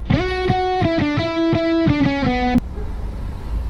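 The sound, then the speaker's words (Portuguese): A short intro jingle: a loud, distorted guitar-like riff of repeated pulsing chord hits that stops abruptly after a few seconds, leaving only faint background hiss. “Não espere ouvir nada edificante, relaxa aí, aproveita o passeio, depois da vinheta, solta o play macaco.”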